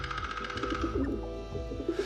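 Soft, throaty pigeon cooing rolls along in low, murmuring pulses, steady for a couple of seconds, with no voices.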